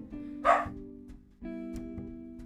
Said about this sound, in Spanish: Ya saludaron los perritos ahí este, acuérdense, es una disculpa porque yo no les puedo decir, voy a grabar, cállense.